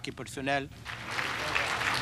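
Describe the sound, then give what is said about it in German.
A voice speaks briefly, then steady applause breaks out in the UN Security Council for the French foreign minister after his appeal for a peaceful solution to the Iraq conflict, a dense crackling wash of many hands clapping that continues at an even, moderately loud level to the end. “Applaus für den französischen Außenminister nach seinem leidenschaftlichen Appell für eine friedliche Lösung des Irak-Konflikts.”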